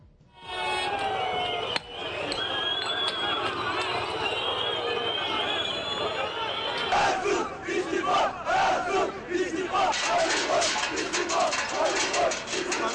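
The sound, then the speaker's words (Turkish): A large crowd of angry Fenerbahçe football fans shouts and chants in protest after a 3-1 home defeat to Galatasaray, calling for the board and Ali Koç to resign; a loud, continuous roar of many voices that breaks into rhythmic, pulsing chants midway through. “Sarı lacivertli taraftarlar takım otobüsünü taşladı. Yönetimi ve teknik direktör Ersun Yanalı istifaya çağırdı.”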